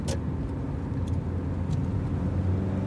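A car drives along at a steady pace, its engine and tyre rumble a constant low drone close by, with a few faint brief hisses and clicks from the street outside.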